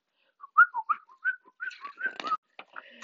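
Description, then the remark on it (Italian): A person whistles a quick run of short, chirpy notes, imitating a little bird's tweeting, clear, with a few soft clicks and rustles near the end. “L'uccellino come ha fatto, amore?”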